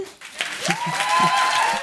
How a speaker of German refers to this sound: Lang anhaltender Applaus für Mascha Gessen.